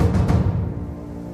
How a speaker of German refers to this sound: Die See ist rau. Regenstürme peitschen über die aufgewühlten Wellen hinweg. Der Pazifik zeigt sich von seiner schlecht gelaunten Seite.